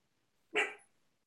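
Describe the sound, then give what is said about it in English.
A single sharp dog bark rings out, loud and brief, with near silence before and after it. “Is that your dog?”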